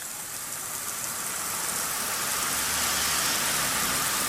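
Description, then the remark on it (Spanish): Steady rain hisses down onto a city street in London, a dense, even wash of sound, with a low rumble of passing traffic swelling slightly toward the end. No one speaks. “Típico, lloviendo en Londres.”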